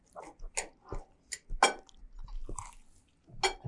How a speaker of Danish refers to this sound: Så spiser jeg imens.